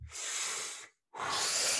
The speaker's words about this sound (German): Erstmal dampfen.